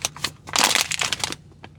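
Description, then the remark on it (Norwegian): Crinkling of a self-brewing bag-coffee pouch being folded: a burst of dry, papery rustles and crackles over about two seconds, loudest in the middle, with no voices. “Så lønner det seg å brette uti der. Det er en sånn posekaffe som trakter seg selv.”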